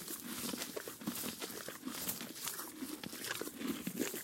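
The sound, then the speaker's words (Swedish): The horse Robin chewing hay given as lunch: steady, rhythmic crunching and rustling of dry stalks, moderately loud and continuous, with no voices. “med Robin som har fått lite lunchmat och så får vi höra nu, nu ska vi lyssna när han tuggar.”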